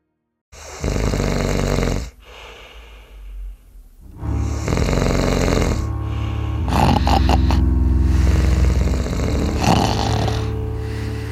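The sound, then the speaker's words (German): Loud human snoring: deep rasping breaths repeat in a slow rhythm, with short quiet pauses between the first few, then a long, harsh, rattling snore that carries on to the end. “Das ist halt ein Geräusch, das 84 Millionen in Deutschland machen, entweder weil sie erkältet sind oder weil sie besoffen sind oder weil sie halt habituell schnarchen, weil es gewöhnliches Schnarchen ist.”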